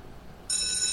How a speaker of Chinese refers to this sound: 最后一节课的钟声响起，所有的小朋友都笑得好开心、好灿烂，